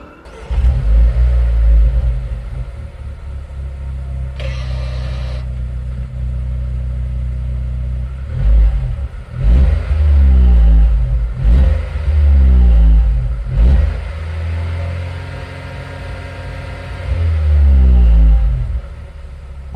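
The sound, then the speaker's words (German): A Mercedes T-Class engine revs up repeatedly in loud, rising bursts, each climb flattening out and stuttering against a soft rev limiter before dropping back to a rumbling idle. “Also dieses Fahrzeug hat auf jeden Fall einen Softlimiter.”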